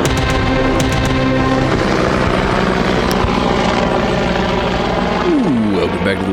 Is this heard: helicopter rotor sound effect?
yes